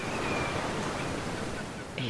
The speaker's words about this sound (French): tu sens un clapotis lorsqu'elle atteint cette barrière.